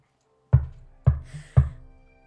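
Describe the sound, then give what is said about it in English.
Three soft, deliberate thunks on a horse stall door, evenly spaced about half a second apart, each low and muffled with a short fading tail, heard alone in a quiet space. “So now what you next hear is a very gentle, and it catches her attention away from the horse, but um, deliberate”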